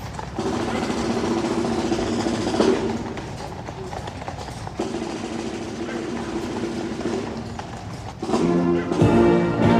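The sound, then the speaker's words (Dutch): Horse hooves clip-clop steadily as a horse-drawn carriage carrying ambassadors rolls past at a military ceremony, a brisk rhythm over a busy background murmur, growing louder again toward the end. “Ze stappen uit een koets.”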